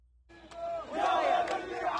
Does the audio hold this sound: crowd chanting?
yes